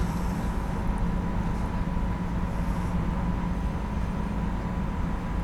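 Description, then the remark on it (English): A train rolls steadily over a bridge, a dense, continuous low rumble with faint metallic hum layered on top, holding at an even, fairly loud level throughout with no voices. “a train over bridges.”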